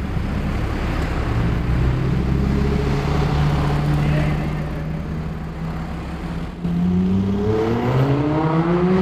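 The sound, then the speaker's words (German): A white Lamborghini sports car engine pulls away briefly, then revs hard in surging bursts in a tunnel in Hannover, Germany, its harmonic whine climbing in pitch as it accelerates, with a low continuous rumble underneath. “Achtet mal auf das kurze Anfahren und dann stoßartige Beschleunigen.”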